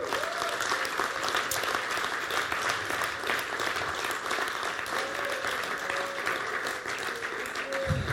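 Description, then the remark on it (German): Steady, sustained audience applause as a guest is invited onto the stage fills the whole stretch, a dense crackle of many hands clapping at an even loudness, with faint voices murmuring underneath. “Und den bitte ich jetzt mal unter Applaus auf die Bühne.”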